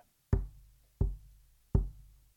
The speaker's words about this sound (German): Ich klopfe einmal an. Und das macht er dann auch. Und klopft noch einmal.